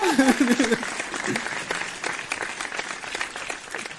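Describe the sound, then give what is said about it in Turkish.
Steady audience applause, a dense wash of many hands clapping at an even loudness throughout, with a brief stretch of overlapping voices near the start, at the opening of a music programme on Onnet Radyo. “Alkışlar bana.”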